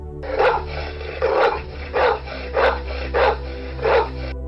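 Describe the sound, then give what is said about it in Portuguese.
A dog barks vigorously, six loud, forceful barks in a steady rhythm about a second apart, with no one talking. “Depois começou a latir com vigor.”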